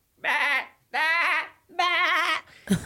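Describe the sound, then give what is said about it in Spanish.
A voice imitates a goat bleating: three loud, wavering bleats in steady succession, followed by a short thump at the end. “Y pasa una chiva, pasa una chiva a un lado de ellos así.”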